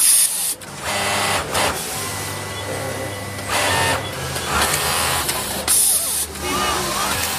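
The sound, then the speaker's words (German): An industrial sewing machine runs in steady mechanical bursts with a loud hiss and rattle, surging and easing in rhythm, with faint background activity. “Und so klingt so eine Nähmaschine.”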